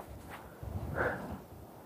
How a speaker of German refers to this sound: Da höre ich Schritte.